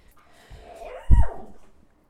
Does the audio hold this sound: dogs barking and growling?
yes